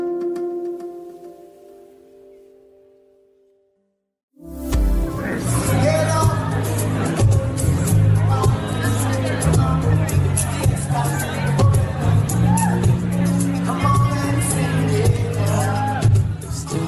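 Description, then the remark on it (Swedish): A sustained tonal chord fades out, then after a brief pause loud dance music with a heavy beat kicks in, overlaid by a dense crowd of chattering and cheering partygoers at a 2013 party in the Stadshuset (city hall), where Boris Johnson danced on the dance floor. “det vi hörde nu det var eh, från en fest 2013 i Stadshuset där Boris Johnson eh, dansade loss på, eh, på dansgolvet.”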